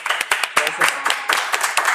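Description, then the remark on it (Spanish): A church audience applauds to welcome founding members of the church, with dense, steady clapping. Many sharp overlapping claps form a continuous bright patter at even loudness throughout. “Queremos darles la bienvenida y pues le damos un fuerte aplauso, ¿verdad?”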